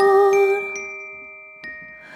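Gentle instrumental opening of a song: clear, bell-like ringing tones that sustain and slowly fade, with a soft chime struck again near the end. No voice yet.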